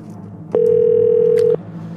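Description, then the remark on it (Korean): A single one-second burst of an outgoing call's ringback tone as a call is placed to a listener, a steady mid-pitched electronic hum that starts and stops abruptly, heard clearly over faint background noise with no talking. “전화 갑니다. 걸어주세요.”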